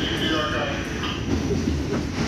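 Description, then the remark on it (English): A steady, continuous rumble of a train at a nearly empty New York subway platform at 7 o'clock on a Tuesday evening, loud, with metallic rail noise and faint indistinct voices mixed into the background. “Just the sound of the trains.”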